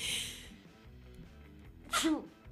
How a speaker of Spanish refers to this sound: chuta, me dio un estornudo, lo lamento. Es que saben qué, es la media estación. La media estación me tiene con ojito brillante, ojito peluche